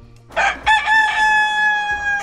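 A rooster crows once, loudly, opening with a rough rising burst and then holding a long, strained, nasal note until the end. No one speaks.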